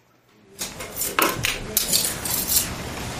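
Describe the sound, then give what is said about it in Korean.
Metal knives clink and scrape against each other in a quick, busy run of bright metallic taps, continuous after a brief quiet start, with no one talking. “와, 사장님, 이 칼 얼마짜리예요?”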